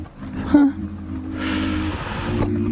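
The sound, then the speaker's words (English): A helicopter sound effect woven into a music beat: a steady, low droning engine hum, joined midway by a loud burst of rushing, whooshing noise that fades out. “You got the helicopter sound effects right now.”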